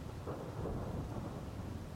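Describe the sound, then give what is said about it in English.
A deep, continuous rumble of thunder rolls through a storm, heavy and low, with a steady wash of rain hissing beneath it and no voices. “Not on a storm like this, said the father”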